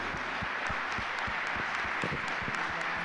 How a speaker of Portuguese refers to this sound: Vamos aplaudir Jesus. ao Senhor. Você pode aplaudir?